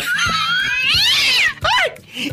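A cat yowls loudly in a long, wavering, high-pitched caterwaul that rises and falls, then breaks into a shorter strained cry before trailing off.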